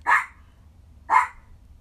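dog barking

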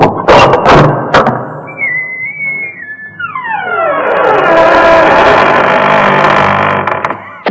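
doors opening sound effect

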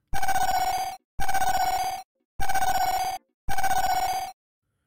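phone alarm ringing

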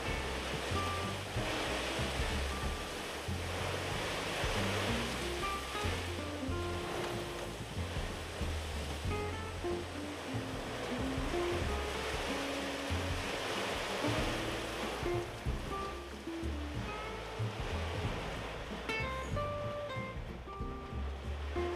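sudden heavy rain

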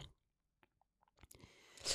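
sipping coffee

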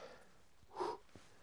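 heavy panting breath

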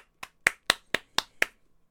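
applause

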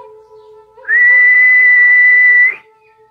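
a person whistling

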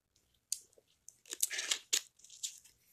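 sipping sparkling water

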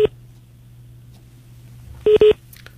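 telephone line tones

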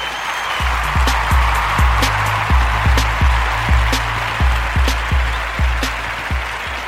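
applause

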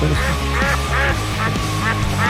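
duck quacking

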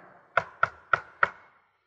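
knocking on a door

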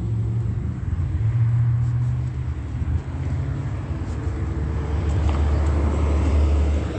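city bus driving past

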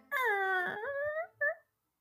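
door opening sound effect

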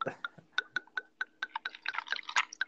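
ice cubes clinking

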